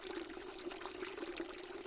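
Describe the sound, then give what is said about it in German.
A steady stream of water pours from a thin pipe at knee height on a house wall into a trough at a fountain, a continuous bright splashing trickle with a gentle burbling tone, unbroken. “An einer Hauswand fließt auf Kniehöhe das Wasser aus einem dünnen Rohr in eine Art Trog.”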